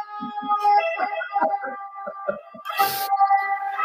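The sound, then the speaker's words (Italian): An ambulance siren drives past again, its steady tones ringing out fairly loud, with a brief burst of rushing noise partway through and no talking. “Aspetta che sta ripassando un'ambulanza.”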